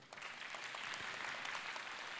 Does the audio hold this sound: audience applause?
yes